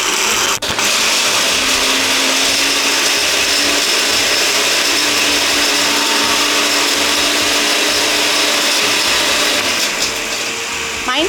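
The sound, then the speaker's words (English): A blender making a blended cocktail with ice whirs loudly and steadily on a high setting, a dense, continuous motor roar that stays nearly constant for about eleven seconds, with a brief dip near the start. “So I'm going to turn on the blender, put it on high.”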